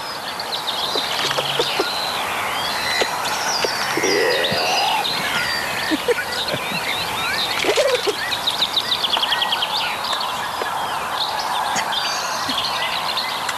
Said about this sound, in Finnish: tässä orava on havainnut sitten nämä samaiset karvat, mitä mikin päällä on